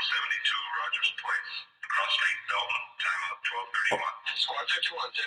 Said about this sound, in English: so, is that is that your phone? So somebody did not turn their somebody did not turn their phone. Wait a minute, listen.